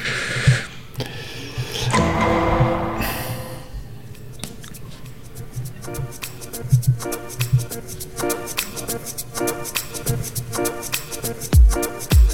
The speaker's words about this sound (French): On va d'abord écouter un jingle et après, et après tu vas pouvoir faire ta chronique et pendant ça, je pourrai préparer la mienne.